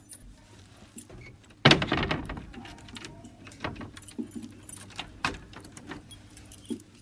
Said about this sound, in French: Je vais vous abandonner deux secondes pour refermer à clé la porte, puisqu'il me faut mes deux mains.